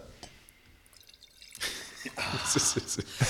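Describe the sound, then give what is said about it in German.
After a second or so of near silence, white wine is topped up into a glass at a large desk in an agency office in Stuttgart, a steady splashing gush with bubbly gurgles that grows louder and fuller as the glass fills. “Lieblingsweißwein nach. Äh, direkt nachkippen, ne?”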